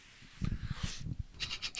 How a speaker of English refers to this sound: Let me take a do- This big gulp. I gotta do it every episode. I gotta take a drink. sip of my drink.